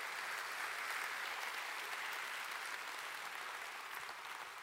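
An audience breaks into sustained applause, a dense, steady wash of many hands clapping at an even loudness that tapers slightly toward the end, with no voices standing out.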